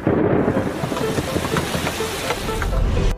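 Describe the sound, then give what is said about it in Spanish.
Steady, dense rainfall hisses throughout while low thunder rumbles underneath, swelling into a deeper roll just before the end. No voices are heard. “He llegado hasta, hasta soñar que llovía.”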